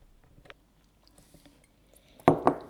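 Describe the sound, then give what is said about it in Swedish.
Chewing and lip smacking while eating a small homemade cake at a home in Älvängen, up in the forest: faint, sparse mouth clicks at first, then two loud, wet smacks in quick succession near the end. No one speaks. “Och smaskar på en liten god kaka som du har bakat.”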